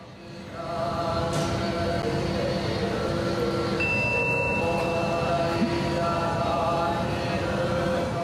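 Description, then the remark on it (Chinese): Solemn Buddhist sutra chanting from a nearby funeral home's ceremony plays over the loudspeakers at Dentetsu-Toyama Station in Toyama, Japan. The station's new wireless microphones share the funeral home's frequency. A steady, droning monotone starts after a second and continues loud and unbroken, with a brief high electronic tone partway through. “车站内不知为何突然响起肃穆的诵经声，让行人们完全摸不着头绪。”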